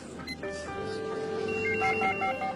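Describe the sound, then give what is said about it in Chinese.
An office telephone rings with repeated electronic tones in a steady pulsing pattern over a busy background hum, with faint voices murmuring underneath. “到达忙碌紧张的办公地点，”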